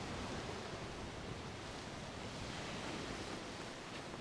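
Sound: sea waves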